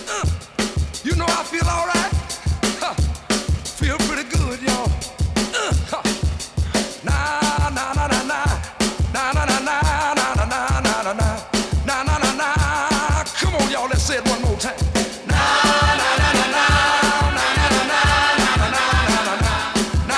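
An upbeat 1960s soul recording plays loud and full, with a driving, steady drum beat and a dense band sound that swells brighter and busier near the end.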